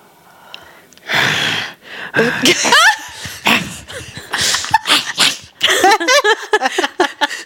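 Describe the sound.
A person vocally imitates a cat with a rapid series of loud, strained yowls, hisses and chirping cries over several seconds, with breathy bursts and a little laughter between them.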